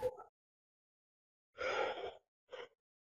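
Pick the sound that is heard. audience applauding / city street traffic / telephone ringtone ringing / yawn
yawn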